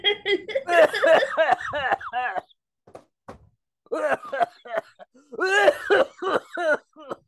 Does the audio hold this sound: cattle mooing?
no